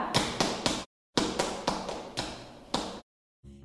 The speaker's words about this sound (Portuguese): Ouviram isso, crianças? Esse é o som dos nossos pés.